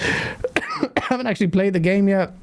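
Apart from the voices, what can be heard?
cough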